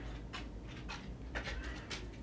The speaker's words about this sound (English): Or my dog right now, grabbing her bone, making noise